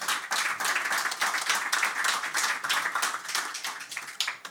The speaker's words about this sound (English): 30 second clap, just clap.